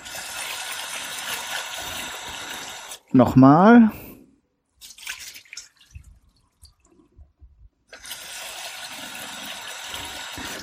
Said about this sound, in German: So, jetzt gebe ich erstmal sehr viel Wasser dazu. Warte, bis ich die Reiskörner wieder abgesetzt haben und gieße das Wasser ab.